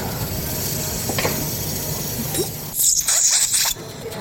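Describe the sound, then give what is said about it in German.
A surgical rasp files the hump off a patient's nose during a rhinoplasty (cosmetic nose correction surgery), in a short run of quick, harsh scraping strokes, fairly loud, after a stretch of quiet background hiss. No one speaks. “jetzt wird als erstes der Höcker weggeraspelt”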